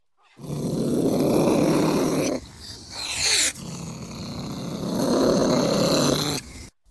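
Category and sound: animal, cat growling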